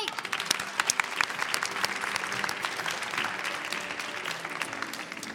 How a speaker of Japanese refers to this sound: ASMR 知ってる人拍手してください